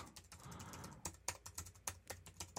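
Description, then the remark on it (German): Someone types a password on a computer keyboard to unlock a locked computer, a quick run of sharp clicks and a few louder key taps, with no voices and a faint hiss in the background. “Ja, ja, äh, mein, ich, mein Rechner war bloß gelockt und ich habe hab neulich mein Passwort geändert und dann jetzt ich muss, muss ich mir beim Passwort tippen noch deutlich mehr konzentrieren.”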